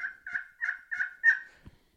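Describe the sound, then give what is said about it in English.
A series of five soft, nasal turkey tree yelps made on a call, evenly paced, each a short raspy note, followed by a faint thump. “But yeah, I'll start out with a tree yelp”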